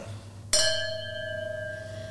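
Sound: sparkling wine glasses clinking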